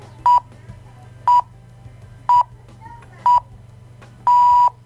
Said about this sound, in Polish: Okej, poczekamy aż się timer wyłączy.